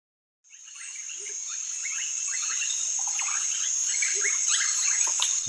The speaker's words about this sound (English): Those are the sounds of the Amazonian region of Ecuador, and the soundtrack of the lives of the Waorani people, a tribal society that includes some communities that have rejected all contact with the outside world.